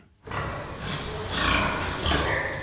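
Several pigs bred for research grunt and snort in a stable near Munich, Germany, a steady rumble of noisy grunts with a couple of higher squeal-like bursts rising over it.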